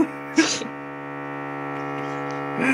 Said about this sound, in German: Jetzt fangen die auch noch an zu bohren.